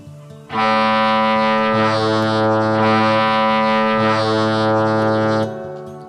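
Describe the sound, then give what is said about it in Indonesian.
Loud, deep ship horns, heard from afar, answer one another in one long sustained blast of about five seconds, the pitch shifting as two horns seem to trade off, with no voices present. “Tidak lama setelah Jolly mengatakan itu, Tiba-tiba saja, dari jauh terdengar klakson kapal yang bersaut-sautan.”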